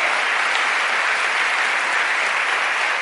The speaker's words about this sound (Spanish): Le damos un aplauso al que vive, aleluya. Muy bien.